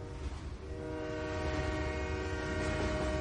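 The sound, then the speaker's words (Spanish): A train rumbles past, its horn sounding a long, steady chord throughout, with heavy low-end rail noise underneath and no voices. “Otras veces me lanzo al interior de trenes que pasan a toda velocidad.”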